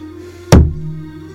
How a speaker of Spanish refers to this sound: Y cerró la puerta.